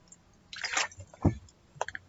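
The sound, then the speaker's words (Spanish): Quiet mouth sounds of someone sipping water: a wet slurp followed by a soft gulp and a couple of small smacking clicks, with no talking. “tomé un poco de agua, no sé si se haya escuchado.”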